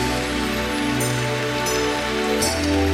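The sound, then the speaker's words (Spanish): A steady wash of crowd applause offered to the King (the Lord) in worship, dense and crackling like rain, holds at an even loudness over sustained music tones, with no voices standing out. “El mejor aplauso es para el Rey.”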